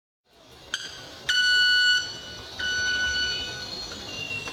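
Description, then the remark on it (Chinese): A Brazilian blue-crowned parrot calling: a brief sharp chirp, then two long, steady, shrill whistled notes, the second one continuing to the end, over a soft background hiss. “这是巴西蓝顶鹦鹉的叫声。”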